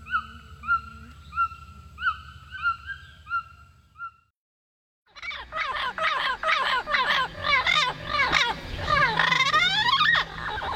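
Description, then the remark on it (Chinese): A red-billed toucan in the Amazon rainforest of Ecuador gives a run of repeated yelping calls, evenly paced and rich in harmonics, over a low hum. After a brief silence, a louder, dense chorus of shrill, chattering bird calls follows. “这是厄瓜多尔亚马逊雨林里的红嘴巨嘴鸟的叫声。”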